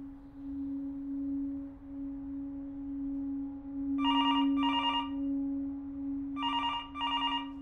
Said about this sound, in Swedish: Dagen efter mordet ringer det på Malmöpolisens telefon.